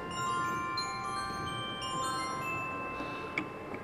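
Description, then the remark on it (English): Glockenspiel notes ring out one after another, bright metallic tones that overlap and sustain, played fairly softly over a faint background hum with no voices. “Ah, um, bells sound, yeah, this one's a glockenspiel here.”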